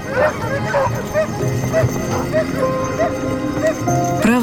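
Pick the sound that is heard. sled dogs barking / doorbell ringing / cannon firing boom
sled dogs barking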